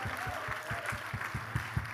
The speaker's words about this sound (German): Hey, ich fänd's gut, so, ne, wenn wir am Anfang nochmal Pastor Son und dem ganzen Team mal hier einen richtig fetten Applaus geben. Hey, komm mal, lass mal laut werden.